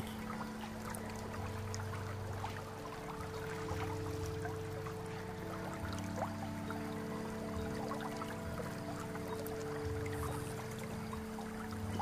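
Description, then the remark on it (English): River water flows steadily in a continuous rushing wash, unchanging for the whole stretch, with a faint low droning hum running beneath it and no voices. “Now you are hearing the sound of the river.”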